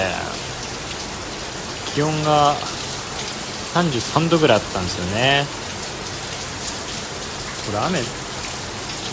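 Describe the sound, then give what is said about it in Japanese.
Steady rain patters down continuously on a hot summer day of about 33 degrees, a dense hiss of drops on surfaces filling the background, while a man speaks in short bursts over it. “雨雨の音これ大丈夫そうこれ雨の音に妨害されて音入ってないんじゃないそう”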